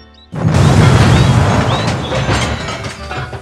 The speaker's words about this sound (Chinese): 不好！大灰狼的肥皂汽车跟黑熊先生的大货车撞到一起了。